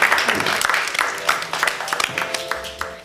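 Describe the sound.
A group applauds a participant who is about to speak, with dense, steady clapping for about three seconds, loud at first and then tapering slightly, with a few voices mixed in beneath the clapping toward the end.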